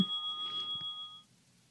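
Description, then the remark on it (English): A single soft bell chime from a meditation timer phone app rings out with a steady, shimmering tone that lingers for about a second before fading away. It is fairly faint, with no voices. “But the Insight Timer, I usually use one of the bells. Sounds like that.”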